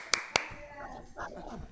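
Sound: applause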